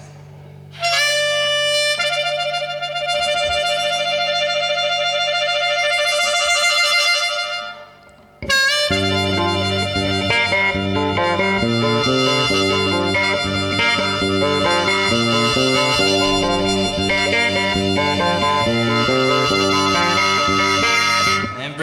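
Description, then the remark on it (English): A reedy harmonica, played by one person together with other one-man-band instruments, holds sustained chords alone, then after a brief pause returns with a bouncing bass line and steady rhythm section beneath it, loud, with no talking. “Playing the harmonica, that's a different story while doing all this at the same time.”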